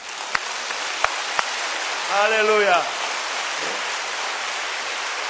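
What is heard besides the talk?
audience applause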